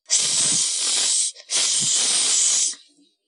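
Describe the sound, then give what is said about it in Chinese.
Two loud, sustained bursts of hissing steam as red-hot lava meets seawater, each lasting over a second with a brief break between them, bright and airy with a low rumble underneath, then fading out. “当又红又热的岩浆遇到海水后，立刻形成了一团巨大的蒸汽，四周白茫茫一片。”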